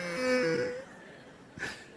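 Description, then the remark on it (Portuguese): A voice mimics a young daughter crying again, a wavering, stepped wailing moan lasting under a second, followed by a brief breathy sob sound, fairly loud with no other talk. “a minha filha está chorando de novo.”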